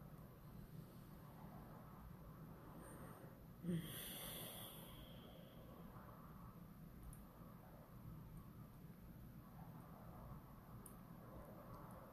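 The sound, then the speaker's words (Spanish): A single deep breath, a soft airy rush lasting about a second, then a long stretch of quiet, steady low background hum with no talking. “Respiración profunda.”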